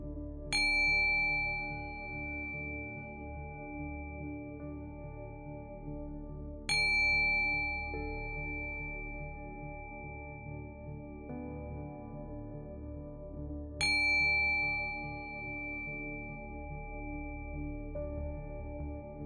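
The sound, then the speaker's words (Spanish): A meditation bell is struck three times during a guided meditation, evenly spaced about seven seconds apart, each bright ring sustaining and slowly fading over a soft low hum, with no voices. “Y ahora les voy a tocar una campana tres veces. Les pido que escuchen el sonido hasta el final.”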